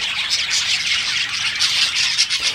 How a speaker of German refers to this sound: Einige Bäume und Äste haben die Wellensittiche. Dort sitzen sie zumeist in Gruppen drin.